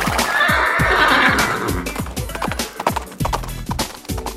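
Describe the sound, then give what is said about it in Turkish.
A horse whinnies loudly, a long shaky neigh that trails off, followed by a run of hoof clops and knocking thuds on a hard surface. “Neyse beygire oturtun siz koltuğa oturtun.”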